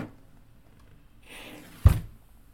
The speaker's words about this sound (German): eine Kerze angezündet, äh, mit einem Streichholz wow. natürlich.